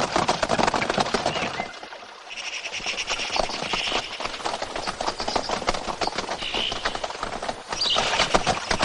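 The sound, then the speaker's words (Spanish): Four horses pull a carriage along a path in the countryside, a dense, rapid clatter of hoofbeats rolling on steadily and fairly loud, with no voices. “Al día siguiente, cuatro caballos tiran de un carruaje por un sendero en el campo.”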